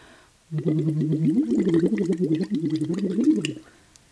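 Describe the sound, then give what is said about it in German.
A person hums a sustained "U" tone through a silicone tube into a vessel of water, a voice practice device; the tone bubbles, warbling and gurgling steadily for about three seconds before stopping abruptly. No one speaks. “Und wenn man das macht, also durch diesen Lachsbox-Schlauch ein U ins Wasser machen quasi, beginnt das Wasser zu blubbern und das tut der Stimme total gut und da gibt es verschiedene tolle Effekte, die helfen, dass die Stimme danach müheloser kommt”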